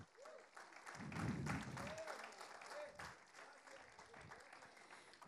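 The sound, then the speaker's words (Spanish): A church audience breaks into sustained applause for God, a dense wash of clapping that swells early and stays steady throughout, with scattered voices calling out over it. “Pueden darle un fuerte aplauso a nuestro Dios.”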